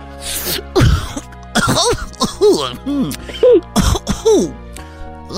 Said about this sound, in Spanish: Porque está saliendo humo de dentro de, su botarga. No, estás fumando, pues, mota, Barney, pues, ahorita. Ah. Uy. o sea, es Barney tosiendo, güey, pero marihuana así.